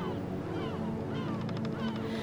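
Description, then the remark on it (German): Seagulls cry and squawk repeatedly above a large excursion ship on the Mediterranean near Istanbul, several harsh calls overlapping, with a quick run of sharp cries near the end, all over a steady low rumble like a boat engine. “Möwen kreischen über dir.”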